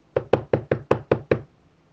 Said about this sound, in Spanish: Un día, alguien tocó a la puerta.